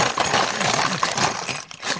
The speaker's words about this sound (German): Okay, der klappende Kasten gibt den Rhythmus vor. Rhythmus? Wie das? Nee, nicht so ganz. Äh. Einfach äh, regelmäßig die Kaste schütteln. So? Ja, und jetzt etwas schneller, bitte.